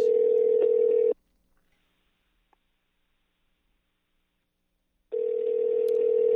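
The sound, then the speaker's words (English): Ringback tone of an outgoing phone call: a steady, buzzy mid-pitched tone sounds, cuts off into about four seconds of silence, then starts again. No one speaks. “If not, this is one for four, and this is going very horrible but I didn't have a, a, true podcast plan for today, so that's why I'm calling people end of the year podcast.”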